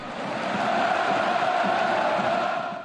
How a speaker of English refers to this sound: And when 80,000 German fans scream your name, you better deliver.